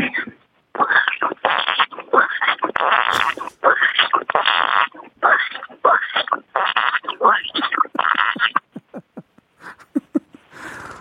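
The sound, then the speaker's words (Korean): A woman in her late sixties imitates a frog croaking with her voice in a long run of rapid, raspy, rhythmic bursts, fairly loud, trailing into quicker, softer clicks near the end. “아, 개구리가 봄 인사 좀 하겠대요.”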